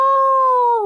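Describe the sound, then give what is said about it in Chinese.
A voice imitates a wolf howl, voicing a little bear cub in a children's story: one sustained, loud, tonal "awoo" held steady for under a second, its pitch sliding slightly downward at the end. “”敖飞像狼一样大声嚎叫：“哦！”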